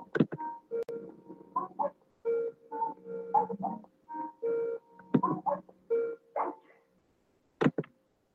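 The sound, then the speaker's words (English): A rapid run of telephone dialing tones as a caller dials to call back into a call-in show: about a dozen short steady beeps in a quick irregular rhythm, with a few sharp clicks in between and at the end. No one speaks. “I am going to try to call back into the show because apparently nobody can hear me once again.”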